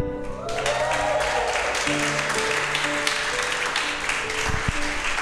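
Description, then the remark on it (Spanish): An audience breaks into sustained applause with cheering, sent as a greeting to people watching on Zoom, a dense, steady wash of clapping that holds loud for several seconds, with some voices mixed in. “Voy a poner el micrófono allá para que le manden un aplauso y una bullita.”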